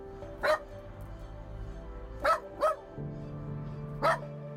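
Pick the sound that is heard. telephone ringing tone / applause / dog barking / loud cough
dog barking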